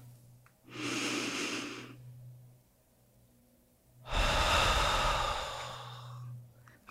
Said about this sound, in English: was a breath in and a breath out. And if you repeat that, you do it again and again, a couple of things are going to happen.